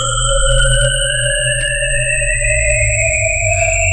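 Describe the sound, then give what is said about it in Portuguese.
A steady electronic humming drone that seems to come from inside an object, with a deep low rumble beneath several sustained tones that slowly glide in pitch, some rising and some falling, loud and continuous throughout with no voices. “Estão vindo um zumbido. Parece vir de dentro do objeto.”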